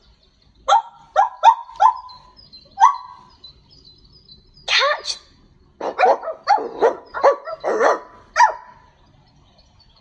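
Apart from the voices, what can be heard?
dog barking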